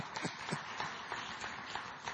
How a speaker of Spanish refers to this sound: Ah, pues dale un aplauso al Señor si usted es hijo de Dios y va para el cielo.